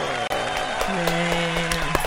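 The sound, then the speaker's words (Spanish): A dense wash of applause fills the whole stretch, many hands clapping at once with a few sharper claps standing out, fairly loud, with a faint steady tone running underneath. “Aplausos.”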